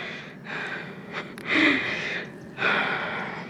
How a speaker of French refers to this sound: Et ça, ça demande beaucoup de souffle. Du coup, je suis essoufflée.